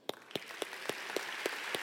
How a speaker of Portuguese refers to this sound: Essa merece um aplauso.